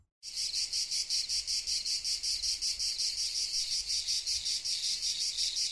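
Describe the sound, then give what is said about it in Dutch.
Crickets chirp steadily in a loud, continuous chorus with a fast pulsing rhythm, dense, with no voices present. “Dat zijn krekels.”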